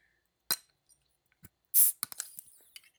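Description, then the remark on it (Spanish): A glass beer bottle is handled with a few sharp clicks, then a short, loud fizzing hiss as the cap comes off, followed by small clinks and rattles. “Bueno, voy a abrir mi cerveza.”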